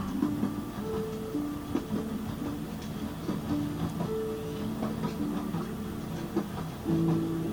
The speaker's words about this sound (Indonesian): Aku masih di kereta membelah angin dengan kecepatan tinggi. Kalau aku dengar suara rel yang bertabrakan seperti tempo sebuah lagu yang indah, yang cukup melembekkan hatiku.